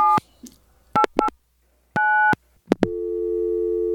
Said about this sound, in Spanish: Estoy llamando por teléfono a los hermanos Grimm. Así a ver si podemos charlar un ratito con Wilhelm o con Jacob, ¿vale?